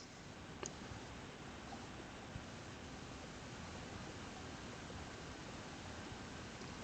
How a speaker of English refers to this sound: Can't really go wrong with like ending on sounds of waves.